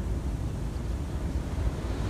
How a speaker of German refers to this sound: konzentrierst dich nur auf das Rauschen des Meeres, auf die Wellen und beobachtest deine Gefühle